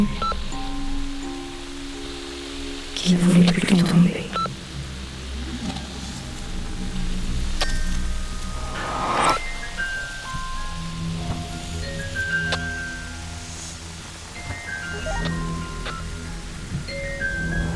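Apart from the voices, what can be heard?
rain falling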